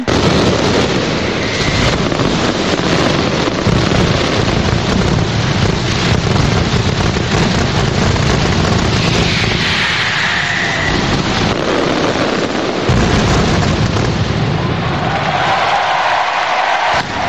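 Festival firecrackers burst at the Santa Tecla festa major in Tarragona in a dense, continuous barrage, a loud roaring crackle of overlapping bangs that barely lets up for the whole stretch, with no voices standing out.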